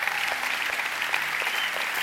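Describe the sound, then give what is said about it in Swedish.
An audience at a Christian service claps steadily for everyone who prayed a prayer to Jesus, a dense wash of many hands with no breaks, holding an even loudness for the whole stretch. No one speaks over it. “Vi ger en stor applåd för alla som bad den här bönen.”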